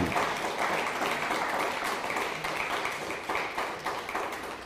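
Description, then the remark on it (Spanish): A crowd applauds steadily for viewers watching from Amsterdam, many hands clapping at once in a dense, sustained patter with faint rhythmic accents, holding at an even loudness for a few seconds with no one speaking. “Usted un fuerte aplauso a Ámsterdam.”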